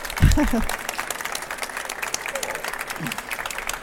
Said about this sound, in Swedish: Och jag, ni som vill får gärna ge socialministern en applåd. Tack.